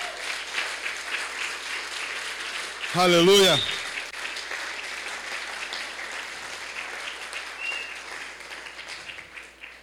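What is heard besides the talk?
audience applause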